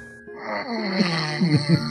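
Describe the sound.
A person imitates a cat with one drawn-out, whiny meow lasting about two seconds, its pitch wavering and bending upward in a few wobbles, fairly loud and with no talking around it.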